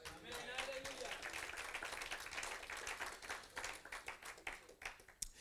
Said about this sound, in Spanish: Paz de Cristo. Dale un aplauso a Jesús.